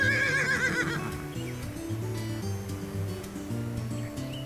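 A mare whinnies once at the start, a shaky, wavering neigh that fades after about a second, over steady low musical notes that carry on to the end.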